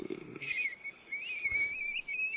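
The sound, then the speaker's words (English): Someone whistles one long, high, wavering tone that slides slightly up and down, held steadily for a couple of seconds at moderate loudness, with a brief low murmur at the very start. “What's up with that whistle to start?”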